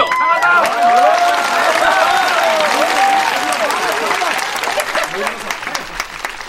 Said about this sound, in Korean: 장하다 박수로 맞이해 주시죠.